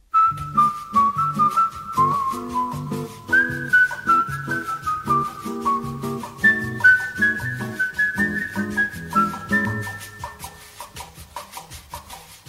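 A late-1950s bossa nova tune with an acoustic guitar plucking steady syncopated chords, while a smooth, high melodic line glides above it. The music is moderately loud and plays without a break.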